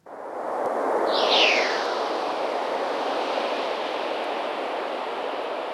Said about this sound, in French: Alors vous aussi, vous nous avez envoyé un son qu'on va écouter. C'est une particule de vent solaire. Vous nous allez nous dire ce qui lui arrive et comment on a obtenu ce son-là.